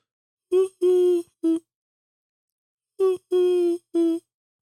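A pigeon coos in two phrases of three notes each, a short coo, a longer drawn-out one, then another short one, clear, with silence between phrases.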